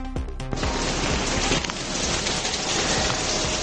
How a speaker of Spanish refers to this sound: La lluvia, la lluvia nos ha acompañado durante todo el día en muchos puntos de la comunidad, una lluvia que ha impedido que el Corpus Christi, la procesión del Corpus Christi de Sevilla, discurriera por las calles.